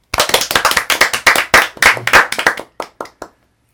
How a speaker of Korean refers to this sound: 예, 정말 반가운 소식이 아닐 수 없어. 한 박수 한번 칠까요?